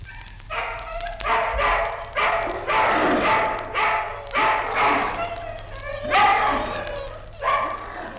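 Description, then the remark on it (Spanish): About a hundred hungry dogs snarl and growl at night while gnawing on fresh meat, in a steady series of loud bursts, roughly one each second, with yips and barks mixed into the rough, continuous racket. “De noche, en la oscuridad, de cien perros a la vez se oía el roer de los dientes, el gruñido de gusto, el ruido de las lenguas.”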